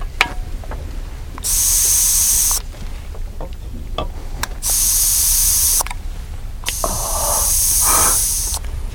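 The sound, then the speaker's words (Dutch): An aerosol spray can hisses in three bursts of about a second each, the last one longest, with short gaps and light clicks between them and no voices. “Niemand anders dan jij of Tomassov kan die bussen hebben leeggespoten.”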